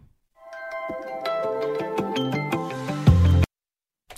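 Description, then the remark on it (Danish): A short, bright radio separator jingle of about three seconds, played by mistake, with quick stepping notes over a fuller chord that swells at the end and cuts off abruptly, leaving silence. “Åh, oh, det var den forkerte skiller, jeg havde på der.”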